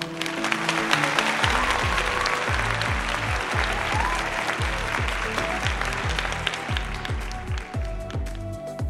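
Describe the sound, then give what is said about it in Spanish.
Loud, sustained applause from a crowd, a dense wash of many hands clapping, with steady low thumping beats underneath that sound like background music playing along. The applause honors young people of the Latin community who graduated from Japanese schools, and their families. “a todos los jóvenes de la colonia latina que han egresado de las escuelas japonesas y a sus respectivas familias que se han esforzado en acompañar a sus hijos en cada etapa de su vida educativa y le brindamos a ellos unos merecidos aplausos.”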